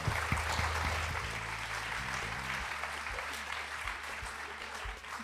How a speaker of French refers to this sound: Oui, je pense qu'on peut applaudir.